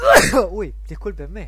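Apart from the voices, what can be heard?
sneeze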